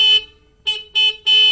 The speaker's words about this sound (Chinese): 这时候，波兹忽然想到一个可以通知农夫跑过来的办法。小猪波兹沁响了拖拉机的喇叭，